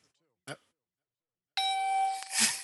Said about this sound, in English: I'm, um, I'm, I'm actually doing my Christopher Pike impression. Oh, God. Was that one beep or two?